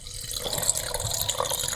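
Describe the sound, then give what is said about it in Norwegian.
A drink is poured into a glass in one steady, continuous stream, a bright splashing trickle lasting just under two seconds with no one speaking. “Heller opp i glasset her.”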